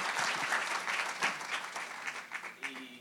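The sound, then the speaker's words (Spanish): Dense audience applause for the pastors at a church gathering fills the whole clip, a steady wash of many hands clapping at moderate loudness, with a few brief vocal sounds rising through it near the end. “Denle un aplauso fuerte al Señor por ellos.”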